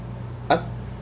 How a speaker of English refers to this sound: Oh, that, oh, that was my phone. I thought I heard the bleep again.